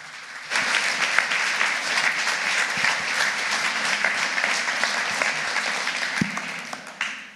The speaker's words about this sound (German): Wir dürfen ihm einmal einen Applaus geben.